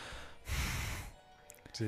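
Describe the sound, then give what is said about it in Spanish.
A voice imitates the heavy breathing of a man climbing up, with a single loud, breathy exhale, followed by a brief pause and the start of a voiced sound. “Simplemente son así como los efectos de sonido de, él subiéndose, como de respirar, O sea, casi, que escucho la respiración de ese güey, así como.”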